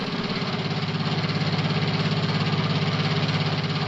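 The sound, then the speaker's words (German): An old, worn boat engine in poor condition, started after several minutes of waiting, chugs roughly at idle as the boat moves slowly across a river. It is loud, with a steady uneven pulsing knock running continuously and no voices. “Nach einigen Warteminuten springt der Motor dennoch an.”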